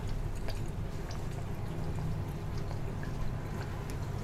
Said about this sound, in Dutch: Sesamolie. Deze is leuk omdat het eh, druppelsgewijs naar buiten komt. Zie je, zit een doseerding op. Dus niet dat je er echt een scheut in kan doen.